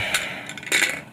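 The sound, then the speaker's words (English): Breathy, forceful blowing into a plastic spirometer by a 45-year-old woman practicing breathing during coronavirus recovery, trying to force three ping-pong-sized balls to the top of its plastic tube; a couple of airy surges with faint light rattling clicks mixed in. No one speaks. “She's blowing into this plastic contraption.”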